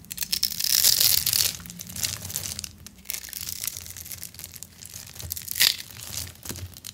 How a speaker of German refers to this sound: Und dann wird mit so einem scharfen Messer diese Seife ganz durchgeschnitten und dann zerfällt die in so viele kleine Würfel.